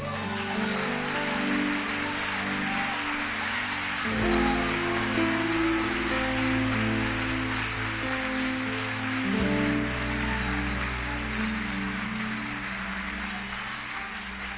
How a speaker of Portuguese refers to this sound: Pode aplaudir o Senhor, irmão.